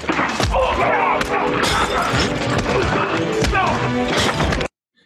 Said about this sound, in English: is a good example of um, you hear the punches; they're really loud.